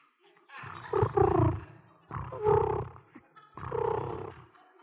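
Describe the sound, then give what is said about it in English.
A person imitates a woman's soft, purring snore while she sleeps at night, with three low, rumbling breaths in a slow, even rhythm. The sound is moderately loud, with no other talking. “she doesn't snore, she purrs.”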